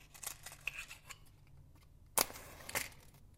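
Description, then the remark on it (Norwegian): A piece of paper being lit for an egg-in-a-bottle experiment with an Erlenmeyer flask: soft papery crackles and rustles, then two sharp, bright strikes about half a second apart, with no one speaking. “Nå skal jeg prøve å tenne på dette papiret.”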